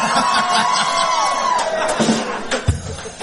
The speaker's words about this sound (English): How about a nice round of applause for me on the vocal?